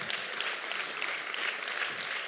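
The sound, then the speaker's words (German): An audience claps steadily, a dense, even patter of many hands sustained at a fairly constant level throughout, with no voices standing out above it. “Also ich weiß jetzt nicht, wofür Sie klatschen, ne, für, das, äh, für den Stempel des Legasthenikers.”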